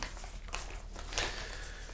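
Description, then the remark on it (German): Paper lot slips rustle and crinkle as someone leafs through the two remaining lots in a drawing, a continuous dry shuffling with a few sharper crackles along the way, and no one speaking. “Mal wieder ein bisschen blättern in den noch existenten zwei Losen.”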